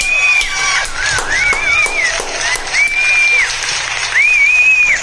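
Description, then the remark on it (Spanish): A crowd cheers and applauds loudly for the whole stretch, the clapping dense and steady, with several shrill, arching whistles rising and falling over the noise. “Vean nada más que público maravilloso, puros acarreados.”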